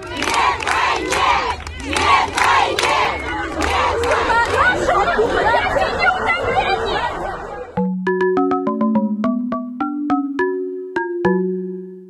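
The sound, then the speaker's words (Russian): A dense crowd of Dagestani women protesting at military enlistment offices after Putin's mobilization decree, shouting and yelling over one another for about eight seconds, loud, then it cuts abruptly to a short bright electronic melody of stepped notes. “И тут я вспоминаю сегодняшних дагестанок, которые в первые же дни после путинского указа вышли отбивать мужей и сыновей у военкоматов.”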